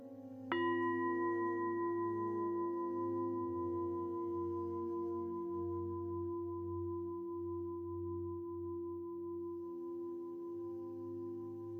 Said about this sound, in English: And shortly I will be ringing the bells. And when you hear the bells, gently bring your awareness back to the room and open your eyes.